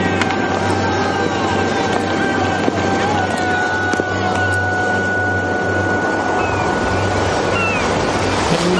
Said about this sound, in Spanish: cielo despejado, una gaviota sobrevuela el mar.